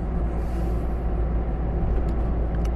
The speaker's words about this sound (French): monsieur le camion, oui, s'il te plaît, si tu pouvais me laisser passer parce que là, si l'autre en face, il doit freiner d'urgence